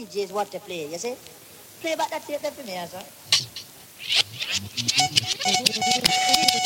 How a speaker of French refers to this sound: euh y a des batteries hyper métalliques qui vont très vite, etc. Donc ça, c'est vraiment complètement tiré de, du, du S1000 euh, et, qu'on sort, euh, puisque euh, ce sont ces algorithmes qui, qui donnent ce son.